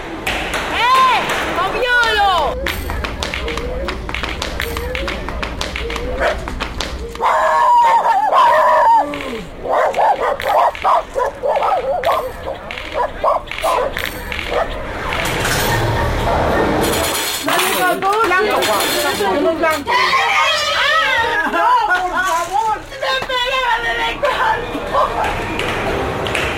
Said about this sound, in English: brought back these sounds from the heart of the city on the island of Cuba.